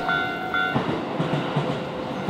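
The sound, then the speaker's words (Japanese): Outdoor ambience in front of Keisei Tateishi Station by the Torifusa shop, with a passing train's steady rumble and clatter, opening with two brief, bright tonal signals before the noise settles into a continuous wash. “今朝は再開発で移転が予定されている京成立石駅前鳥房のいい音”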